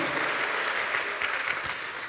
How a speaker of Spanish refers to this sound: Dale un aplauso al Señor.